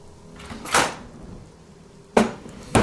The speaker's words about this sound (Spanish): En esa noche, sobre las 12 de la noche, empezamos a escuchar cajones que se abrían.